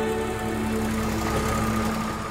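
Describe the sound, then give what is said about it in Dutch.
A tractor engine runs steadily, a low droning hum with a rough, throbbing rumble that holds constant throughout, with no voices, at a blessing of 95 tractors with holy water in Wilvergem near Heuveland. “Nee, ik ook niet, maar gisteren zijn daar 95 tractoren gewijd.”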